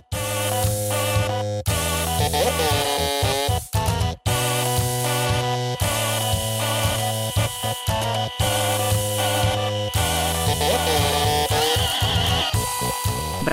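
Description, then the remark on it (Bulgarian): Music played by printers, post terminals, electric toothbrushes, epilators, irons and other household appliances: buzzy, mechanical tones hum out a steady melody in clipped phrases with brief gaps, loud, with no voices. “тази вечер всичко е възможно, включително принтери, посттерминали, електрически четки за зъби, епилатори и ютии да изгащват духове с музика.”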